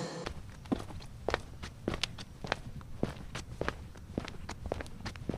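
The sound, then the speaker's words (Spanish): Footsteps walking at a steady pace toward the ground-floor right-hand door, a dozen or so crisp steps on a hard floor with slight scuffs, against a low background rumble and no talking. “Venga, vamos ya a la puerta del bajo derecha.”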